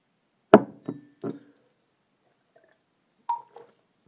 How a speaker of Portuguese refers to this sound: Espera aí, deixa-me só beber um bocado de água.